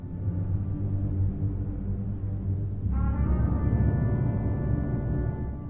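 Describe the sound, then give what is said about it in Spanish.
Orchestral film music, a recurring motif, from the soundtrack of The Mask of Zorro plays alone: deep, sustained brass and low strings hold a dark chord, then shift midway into a brighter, swelling chord with a rising horn line, loud and continuous. “Y en Willow, y por último en la antes mencionada La Máscara del Zorro.”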